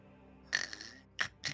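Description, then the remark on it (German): Someone imitates snoring with a raspy, drawn-out snort followed by two shorter, quick snorts, moderately loud against quiet surroundings. “Sie schnarchen immer noch, Miss.”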